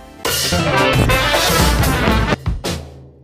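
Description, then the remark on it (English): A loud, dense burst of clashing, discordant instruments playing at once for about two seconds, then breaking into a couple of ragged final hits before fading out. “C A C O P H O N Y, a harsh, discordant mixture of sounds.”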